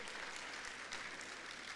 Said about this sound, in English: Let's give the Lord another hand clap of praise.